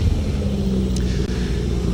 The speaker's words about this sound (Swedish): vi rullar vidare i den här jättefina Escort 2